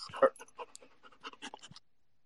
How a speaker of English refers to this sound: Was that a dog at the end? Yeah, that's my dog. He's wild.